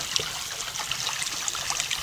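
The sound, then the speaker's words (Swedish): A small stream, about five metres wide, trickles and babbles steadily over cobblestones, a continuous gurgle of shallow running water with bright splashy bubbling and no voices. “Och kullerstenar är det. Det blir lite ström på så vis.”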